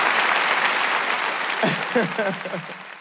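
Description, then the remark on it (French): A comedy show audience applauds steadily, a dense wash of clapping filling the space, with a few raised voices or cheers rising near the end as the noise begins to fade. “On joue ensemble, vous êtes là, montre faites du bruit pour vous, c'est incroyable.”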